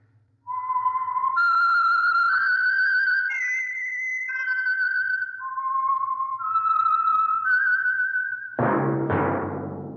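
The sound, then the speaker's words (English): A loud, clear whistled tune, the signature theme of the radio program The Whistler for the Signal Oil Program, of long held notes that step and glide up and down in pitch, over a faint low hum, ending in an abrupt burst of fuller music. “That whistle is your signal for the Signal Oil Program, The Whistler.”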